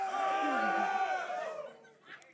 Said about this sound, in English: Yes, alpha males, give me a roar, yeah?